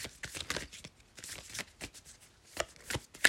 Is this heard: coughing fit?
no